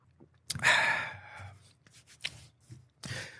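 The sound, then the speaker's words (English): A fairly loud sip or slurp from a drink, lasting about a second, followed by a few soft clinks and rustles, and one more short burst near the end. “I take all my Cyberscope notes, put them over here and take another sip.”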